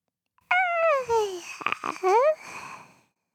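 A newborn baby cries at birth, a loud wavering wail that falls in pitch, breaks briefly into short babbling sounds, then rises into another cry before fading out.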